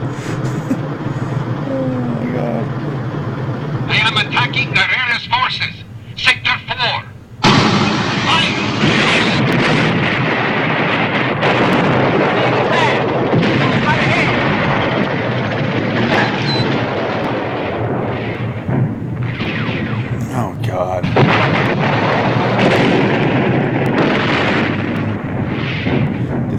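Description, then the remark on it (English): Loud battle din of tanks firing and explosions, a dense rumbling roar with repeated heavy booms, briefly dropping out before surging back and continuing steadily, with voices faintly mixed underneath. “No, just some tanks.”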